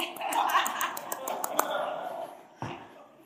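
A short run of soft, polite claps, about nine light pats in a quick, even rhythm, quiet, with a low murmur underneath and a dull thump afterward.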